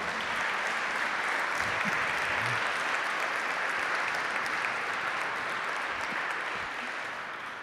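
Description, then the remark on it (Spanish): An audience applauds for the Lord in a sustained, dense burst of clapping that fills the room, steady throughout and tapering slightly toward the end, with faint voices mixed in. “Ah, denle un aplauso al Señor.”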